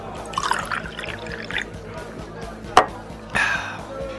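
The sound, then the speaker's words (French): Someone pours themselves a small drink: a sharp clink, then a short splashy burst of liquid filling a glass, over a steady low background rumble. “attendez, je vais m'en jeter un petit avant de vous énumérer tout ça.”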